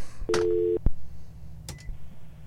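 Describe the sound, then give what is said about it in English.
A short electronic telephone beep, a steady half-second tone, followed by a sharp click and a couple of brief bursts of line noise as call-in phone lines at a radio station are taken off hold, with no one speaking. “All right, let me unhold the phones.”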